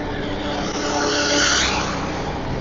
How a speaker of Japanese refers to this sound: ちょっとね、車の大大通りなので、ね、車の音も入ってくるかもしれませんけど